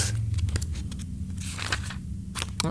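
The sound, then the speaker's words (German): Book pages being flipped: quick, papery rustles and soft swishes come in irregular bursts over a low background hum, with no one speaking. “Okay, dann blätter doch mal durch hier.”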